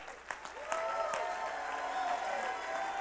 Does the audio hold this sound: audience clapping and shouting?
yes